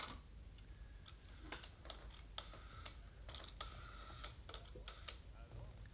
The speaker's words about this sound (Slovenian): Trenutek, telefoniral bom.